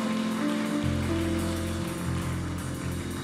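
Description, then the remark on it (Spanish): An audience applauds for the Lord in a dense, steady wash of clapping that stays loud for the full few seconds, with low sustained droning tones running underneath and no voices. “Que les mandemos un fuerte, fuerte, fuerte aplauso digno.”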